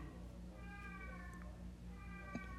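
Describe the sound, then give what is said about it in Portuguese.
A cat meows twice, each call drawn out and slightly wavering, with a short pause between them. The meows sound fairly soft over a steady low background hum. “Então, tem um gato miando aqui.”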